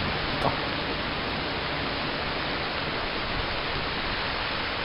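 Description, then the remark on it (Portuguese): Heavy rain pours down in a steady, dense hiss, loud and unbroken across the whole stretch, with no voices or other distinct sounds rising above it. “O que é bom com toda essa chuva?”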